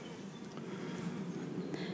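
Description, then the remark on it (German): A steady, low droning hum of many honeybees buzzing around a hive, continuous and fairly soft, with faint brief chirps and rustles drifting over it and no one speaking. “Vor allen Dingen die Geschäftigkeit, mit der die Bienen unterwegs ja, sind.”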